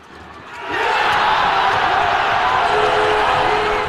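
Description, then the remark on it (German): A packed handball arena crowd erupts into a loud, sustained roar of cheering after an equaliser as Austria's handball team draws with Spain, swelling within the first second and staying at full intensity, with shouts and whistles mixed into the crowd noise. “So klingt es, wenn Österreichs Handballern die Sensation gelingt.”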